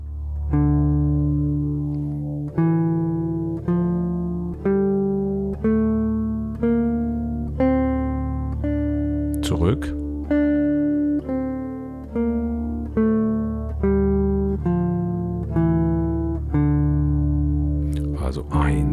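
A steady, sustained low drone tone holds throughout while a series of clear, evenly spaced melodic notes steps up and down the D minor (D Aeolian) scale over it, fairly loud.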